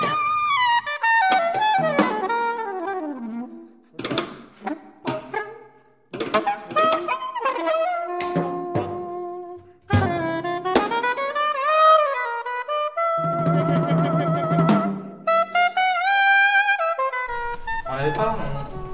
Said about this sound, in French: Il est saxophoniste, il est actif dans l'univers du jazz et c'est le son de son saxophone qui résonne pendant que je parle.